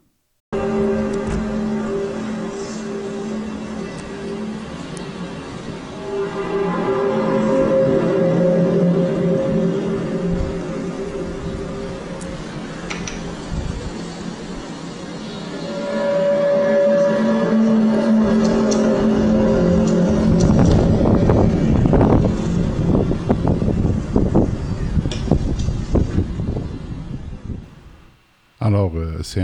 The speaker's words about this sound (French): je vous ai promis qu'on vous ferait entendre un peu ces sons de trompette-là. Alors, gardez l'oreille attentive, je vais vous en faire jouer un petit extrait. Le voici.